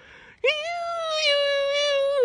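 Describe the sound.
A person imitates a whimpering puppy with one long, high-pitched, nasal whine, made by one of the panel members seated on the tiered benches of a TV studio. It holds steady for nearly two seconds, loud, with no talking around it.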